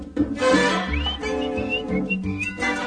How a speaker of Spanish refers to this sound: Con su carita de flor temprana, linda con sol de bella mañana, me sonreía y yo le chiflaba.